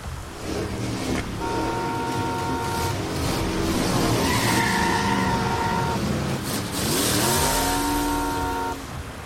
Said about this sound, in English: Our fancy rented car tearing down one of the dirt roads leading to the threshold, plumes of dust turning in the wind.